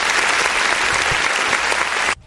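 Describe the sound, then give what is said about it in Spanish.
A burst of clapping from many hands, dense and steady at a loud level for about two seconds, then cutting off abruptly. “Un aplauso para él, sí, sí.”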